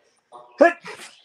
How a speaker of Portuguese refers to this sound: Sa... Saúde! Nossa! Desculpa, ó, enquanto você espirra aí, ó, eu vou Nossa.